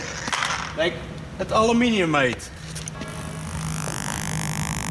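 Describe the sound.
A voice speaks briefly, then a handheld spectrometer fires with argon, making six small holes in the sample to check its chemical composition, giving a steady, even hiss with a faint rising whine that continues to the end.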